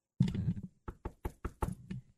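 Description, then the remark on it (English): A loud initial thump followed by a quick series of about five or six sharp knocks on a door, clear with no voices. “Hold on, Theo. Let me get the door.”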